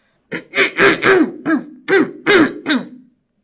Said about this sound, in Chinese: 小狐狸清了清喉咙，大声的问：